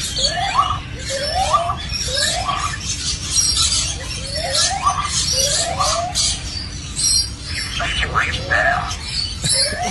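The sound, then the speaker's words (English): A lyrebird at a zoo mimics an evacuation alarm, recorded a day after the siren went off, repeating about eight rising, siren-like whoops in a steady rhythm over a busy, hissy background of other calls. “if you don't know what a lyrebird is, basically they can mimic many things”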